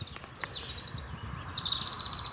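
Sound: european robin singing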